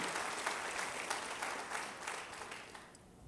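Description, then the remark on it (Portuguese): A church audience applauds to praise the Lord, a dense wash of many hands clapping at an even level for a few seconds before thinning slightly at the end. No one speaks over it. “Aplauda o nome dele, exalte o nome do Senhor.”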